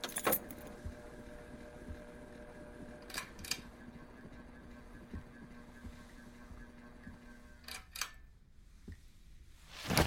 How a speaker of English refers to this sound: those keys are big.